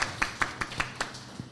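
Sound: applause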